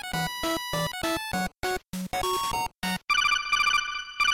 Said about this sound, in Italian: Scusate, mi sta suonando il telefono.